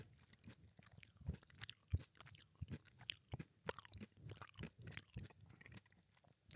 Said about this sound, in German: Beschreibe das, hm. das, das Geräusch mit deiner Zunge, mit deinem Mund. Das habe ich Ich habe versucht, ganz laut zu schmatzen gerade. Aber es hat irgendwie, war wohl nicht laut genug.